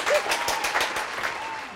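A small group claps steadily for a couple of seconds, a dense, crisp patter of hands that stays fairly loud and eases off slightly toward the end.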